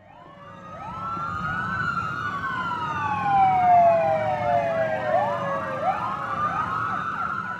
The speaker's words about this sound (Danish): Mens betjentene i fuld udrykning ilede mod gerningsstedet